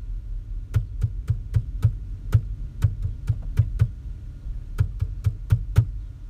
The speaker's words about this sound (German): Hättest du es erkannt? Ich habe alle meine Entchen ähm, geklopft. Und wahrscheinlich kennt jeder von, also kennst du das, wenn du das jetzt hörst, ja? Von 100 Leuten kennt wahrscheinlich jeder alle meine Entchen.